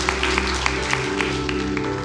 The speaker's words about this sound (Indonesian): Mari, kita berikan tepuk tangan yang meriah buat Tuhan kita, saudara.